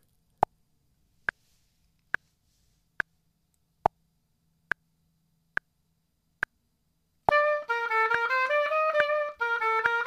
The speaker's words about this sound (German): Mit zwei Takte Klick-Track geht's los. Wie gesagt, der wird ja später ohnehin weggelöscht.